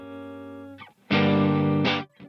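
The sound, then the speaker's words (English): The hungry screams of an orphaned predator ring out in the Presidio: a steady, droning wail, a brief break, then a much louder, harsh, distorted shriek, ending with a short final cry. “Only the hungry screams of an orphaned predator.”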